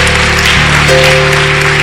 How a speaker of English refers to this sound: Okay, uh, young man, can you clap? Can, can you clap your hands? Yeah. Clap, yes.